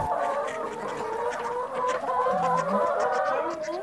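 A flock of hens clucks continuously on an organic farm, many overlapping chatters and short calls forming a busy, steady din with no speech.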